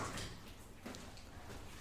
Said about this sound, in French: Ça va être le moment où elle va fermer la porte.